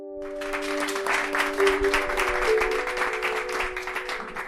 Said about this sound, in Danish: og som du kan høre her, bliver det nye år budt velkommen med klapsalver hos CFL.